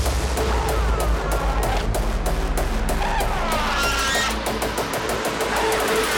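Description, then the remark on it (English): A heavily distorted bass drum kick pounds in a steady, rapid rhythm, each hit a loud, crunchy burst of noise with a gritty, saturated low end. “This is the most crunchy bass drum in the world.”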